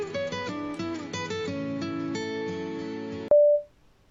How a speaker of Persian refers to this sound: در اتاق را می بندم. تلفنم زنگ می خورد.